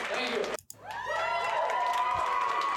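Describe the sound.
A brief snippet of music cuts off at the end of a live song, then a large crowd erupts into sustained, loud cheering in response, with many high voices whooping and shouting over a steady roar.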